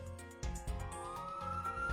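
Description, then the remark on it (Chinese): A police siren wails as it approaches from afar toward a villa, its steady tone sliding slowly upward in pitch over a low, rumbling backdrop, with no voices present. “爱德华医生的话刚讲完，只听一阵响亮的警笛声由远及近，逐渐传进夜莺别墅。”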